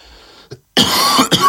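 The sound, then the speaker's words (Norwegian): A brief throaty sound, then loud, harsh coughing: a strong burst followed quickly by a second cough, with no talking. “Beklager, altså. Jeg må hoste litt.”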